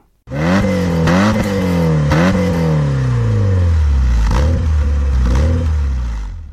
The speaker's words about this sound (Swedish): Motorljudet är spänstigt och dovt. Och det märks att cylindervolymen är stor. Det är gott om botten och det vaknar till lite grann när man varvar den.